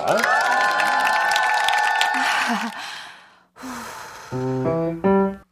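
An audience applauds and cheers loudly for about three seconds before the noise fades out; after a brief pause, a few stepped piano notes are played.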